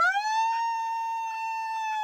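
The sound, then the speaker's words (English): A lion lets out an oddly high, soprano-like roar: one steady, piercing wail that rises at the start and holds for about two seconds, rich in overtones, with no talking. “How the hell you supposed to be the king of the jungle and you out here roaring in soprano”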